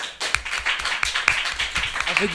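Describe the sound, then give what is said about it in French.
A première S school class claps together to vote 'true', in quick, uneven bursts, with many sharp hand claps overlapping into a steady ripple of applause, while voices chatter faintly underneath. “Voilà, donc euh, euh, on passe au, vote de la classe de, de première s Donc ceux qui sont pour vrai, applaudissez.”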